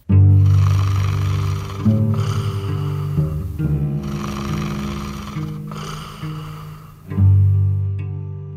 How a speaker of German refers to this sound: Zuerst befassen wir uns mit dem Vorläufer der Schlafapnoe, dem Schnarchen. Der sägende, röchelnde Ton entsteht immer dann, wenn es eng wird in den Atemwegen und das Gewebe anfängt zu vibrieren.